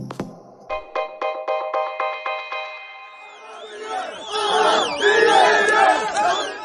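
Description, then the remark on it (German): A large crowd of protesters in the street in Lebanon chants in rhythmic unison, short shouted beats repeating steadily, then swells into a dense, loud roar of many overlapping voices shouting and cheering outdoors. “Seit fünf Tagen gehen Hunderttausende Libanesen auf die Straße.”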